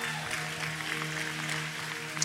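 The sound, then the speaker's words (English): A church audience claps steadily and continuously for people coming forward for prayer, a dense patter of many hands, while a sustained organ-like tone hums underneath at an even level. “Keep clapping, church. Come on, keep clapping for them.”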